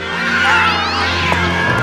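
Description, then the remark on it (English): Several half-wild shorthair cats being herded meow and yowl at once in a loud, continuous chorus of overlapping wavering cries, with no talking. “Holding together 10,000 half wild short hairs, well, that's another thing altogether.”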